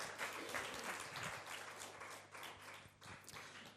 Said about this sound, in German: Ähm, gebt ihr doch einen Applaus.